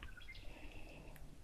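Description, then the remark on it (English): A woodpecker calls faintly, a few thin, high chirps and a drawn-out whistling note over a quiet outdoor hush, in a mowed clearing in the woods at the Hyden Adventure in Upper Michigan, with no one talking. “There's a woodpecker in the background.”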